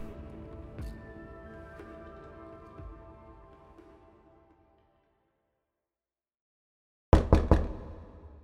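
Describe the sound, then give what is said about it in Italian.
A sustained musical tone fades into silence, then police officers give three loud, quick, sharp knocks in close succession on the door of Andrea Pizzocolo. “Quando bussano alla porta di Andrea Pizzocolo, gli agenti di polizia non sanno bene chi trovarsi davanti.”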